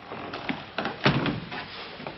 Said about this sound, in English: opens a door for him to enter a cold room